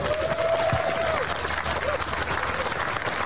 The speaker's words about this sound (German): So, da ist schon ein bisschen mehr Applaus.